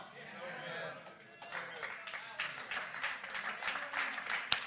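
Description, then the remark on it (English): A crowd claps, dense and steady, the sound of many hands blending into a continuous wash of applause that builds slightly toward the end, with a faint murmur of voices underneath. “Clap, we clap.”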